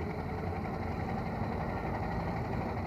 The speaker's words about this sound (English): A London taxi is just giving us way as Ozzy is revving the Dion Bouton up a slight hill.